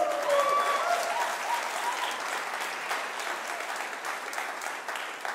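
A crowd claps steadily in dense, sustained applause that fills the whole stretch, loud at first and tapering slightly, with faint whistles or cheers mixed in near the start.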